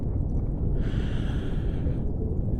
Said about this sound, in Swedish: Känner du eh, smultrondoften? Andas in lite i djupa, långsamma andetag.